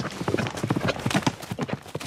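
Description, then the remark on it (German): Hooves of calm riding horses in Argentina clip-clop in a quick, steady rhythm, each hollow knock sharp, continuing without pause for a couple of seconds with no talking over it. “Die sind daran gewöhnt und deswegen habe ich die Pferde.”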